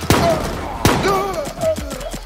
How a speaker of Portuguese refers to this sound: Se preparem, se preparem! O mascarado fez um sinal e os tiros vieram em direção aos novos azuis.